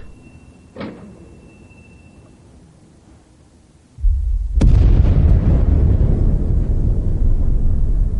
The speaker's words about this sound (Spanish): Una explosión y una columna de humo se alzan en la lejanía.